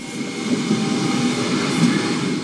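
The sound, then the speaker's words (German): A new hydrogen-powered regional passenger train on the Regionalbahn 15 line from Bad Homburg to Waldsolms Brand-Oberndorf, Germany, running steadily, a continuous loud rumble with a faint electric whine and rolling wheel noise, with no voices. “So klingen die neuen Züge der Regionalbahn 15 von Bad Homburg nach Waldsolms Brand-Oberndorf.”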